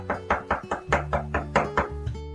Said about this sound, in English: Hey, somebody's knocking. I wonder who's knocking.